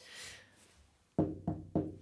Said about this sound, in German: ich habe auf Holz geklopft. Toi, toi, toi haben wir.